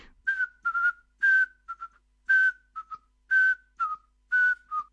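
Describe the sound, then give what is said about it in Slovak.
A person whistles an imitation of a Eurasian pygmy owl's call: a breathy series of short, even-pitched hoots, some paired, repeated steadily over a few seconds. “Ja som vás ani nevyzýval na vydávanie tých zvukov a predsa ste už sám sa do toho pustili, viete ešte aj nejaké ďalšie? Kuvičov vrabčí”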